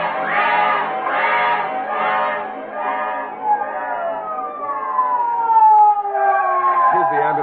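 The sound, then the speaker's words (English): An ambulance siren wails loudly, pulsing in quick rising-and-falling cycles before shifting into long, sliding tones that sweep downward as it keeps sounding. “Call an ambulance at once.”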